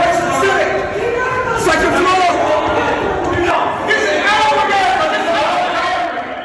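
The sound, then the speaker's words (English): A crowd of January 6 rioters following Officer Eugene Goodman through the US Capitol shouts and yells over one another, a dense, steady roar of raised voices with occasional sharper cries and thuds, staying loud from start to finish. “That's a bit of sound uh, of the January 6 rioters following Officer Goodman through the Capitol.”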